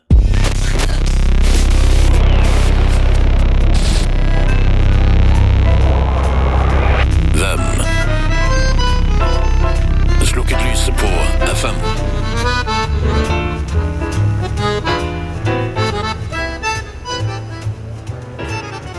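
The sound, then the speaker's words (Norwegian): Sveriges Radio broadcasting on FM, received in Oslo, comes through a steady wash of hiss and static, with muffled voices and music fading in and out, continuous and fairly loud throughout. “Det var lyden av Sveriges Radio på FM i Oslo.”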